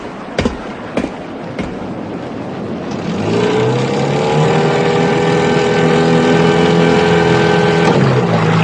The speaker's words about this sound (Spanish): Se abrió la escotilla y aparecieron unas figuras oscuras que botaron una lancha motora y se acercaron hasta nosotros.